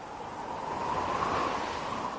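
A steady rush of blowing wind, a broad breathy whoosh that swells a little toward the middle and then holds, heard on its own with no voices.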